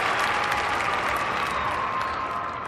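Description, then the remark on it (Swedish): Steady, dense applause from a crowd, many hands clapping at once in a continuous wash of sound that stays loud and even for a few seconds before easing slightly. “så kom jag in och förväntade mig stora applåder när jag ja, men, äntrade scenen.”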